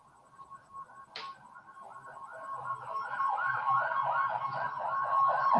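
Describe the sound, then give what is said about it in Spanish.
An ambulance siren wails in quick repeating up-and-down sweeps as it passes by, growing steadily louder, with a low traffic rumble underneath and a brief sharp click near the start. “Perdón, pasó ahí una ambulancia.”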